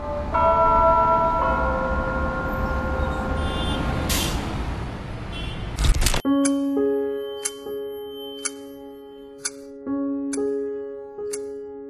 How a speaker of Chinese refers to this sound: 我在这个武汉四年的这个让我非常印象深刻的一个时刻，就是我们二零二零年四月八号零点零时零分的这个呃钟声的响起那一刻，是让我最难忘的。